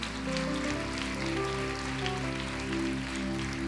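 audience applauding

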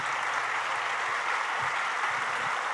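audience applauding loudly

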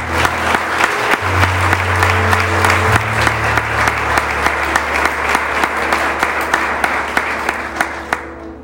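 audience applauding

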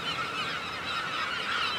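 seagulls calling

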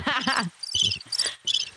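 cricket chirping

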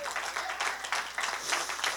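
audience applauding

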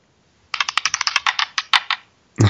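dice being rolled

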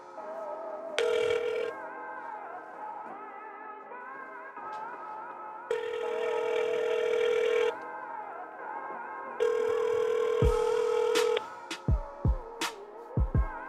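outgoing phone call ringing

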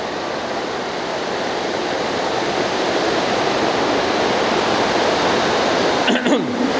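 heavy rain

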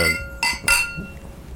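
glasses clinking

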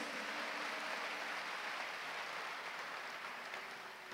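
audience applause

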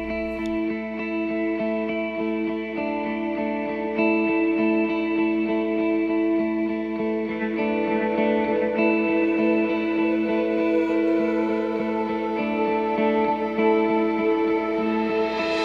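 song intro playing

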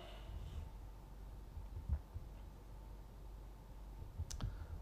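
computer mouse clicking

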